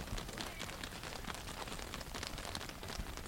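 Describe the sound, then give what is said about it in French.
Many sheep hooves patter on asphalt in a dense, continuous clatter of small overlapping clicks, steady and fairly quiet throughout, with no talking. “Donc là, ce qu'on entend, c'est les pas des moutons sur le bitume.”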